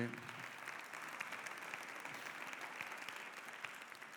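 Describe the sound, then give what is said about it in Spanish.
Steady audience applause for the actors fills the whole stretch, a dense wash of many hands clapping at an even level, with no pauses or talking. “Gracias a Dios por nuestros actores, ¿no? Un aplauso.”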